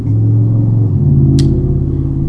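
A heavy truck rumbles loudly past, its deep engine drone steady and dominant throughout, with a brief hiss or clatter midway through.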